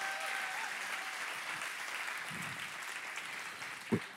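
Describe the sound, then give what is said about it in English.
A church audience applauds steadily to give God the glory, a dense wash of many hands clapping at once, fairly loud and sustained throughout with a slight swell near the end and no one speaking. “Can you put your hands together and give God the glory?”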